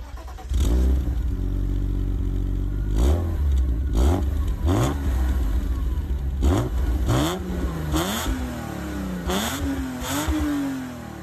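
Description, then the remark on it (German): A BMW inline-six engine idles loudly and then is blipped repeatedly, its pitch rising and falling in quick rev bursts with a raspy, throaty tone and no voices. “Also es ist wirklich parademäßig BMW rein Sechszylinder heiser. Hört euch mal an, wie schön der das Gas annimmt, ne?”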